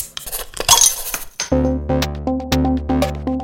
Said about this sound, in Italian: Però prima, come di consueto, sigla e poi cominciamo.